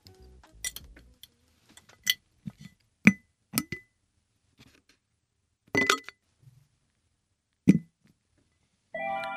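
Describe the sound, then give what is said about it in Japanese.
A coaster is dropped into a glass jar to be kept: a handful of sharp clinks and taps at uneven intervals, with brief rustling in between and no voices, ending on a short ringing tone. “ではこのコースターをガラス瓶に入れて今日も保存したいと思います”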